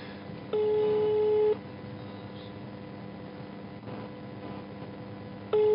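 A phone line's ringback tone sounds steadily during a live on-air call, one ring lasting about a second, then a long gap of low background hiss before the next ring begins, with nobody picking up.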